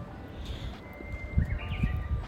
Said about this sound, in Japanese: 神奈川県横浜市港南区港南台石田園本店の2階自宅ベランダよりお届けしておりますウグイスがね鳴いていますよ聞こえますか